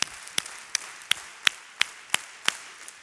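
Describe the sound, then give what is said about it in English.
An audience claps in unison, about ten sharp, steady claps spaced evenly apart at a brisk rhythm, with no talking over them. “Take out your hands and clap 10 times.”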